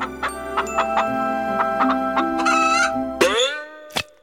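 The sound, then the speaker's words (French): A hen in a henhouse clucks in a run of short calls, rising into a longer drawn-out squawk before stopping abruptly, with one final sharp cluck. No one speaks. “Vers l'âge de 5 ans, elle s'enferme plusieurs heures dans un poulailler avec une poule.”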